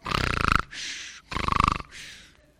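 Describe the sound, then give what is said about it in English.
A person imitates snoring: two loud, rattling inhaled snores, each followed by a breathy, hissing exhale, in a slow repeating rhythm with no talking. “you sound asleep.”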